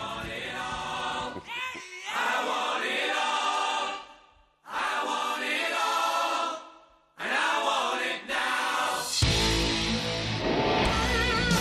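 A loud 1989 rock single with electric guitar, dense and driving, broken by two short pauses before it surges back fuller and heavier near the end. No one speaks.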